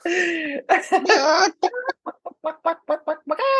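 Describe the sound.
A person imitates a chicken: a few drawn-out squawking calls, then a quick, steady run of short, clipped clucks, loud, with no talking.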